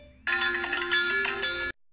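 A phone ringtone for an incoming call plays a bright, melodic electronic tune with layered high tones, loud and steady for about a second and a half before cutting off abruptly, with no voices.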